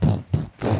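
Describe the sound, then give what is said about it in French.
A voice imitates the rumbling engine noise of a backhoe and tractor in three quick, loud, growling bursts, with brief pauses between them. “comme ça, ça fait les bruits de, de tractopelle et de tracteur, et puis de plein de bruits, de dépanneuse genre dépanneuse.”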